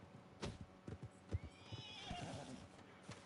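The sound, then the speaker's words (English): A horse whinnies in a long, wavering call while hooves clip-clop unevenly, sharp knocks scattered across the few seconds at moderate loudness. “My horse.”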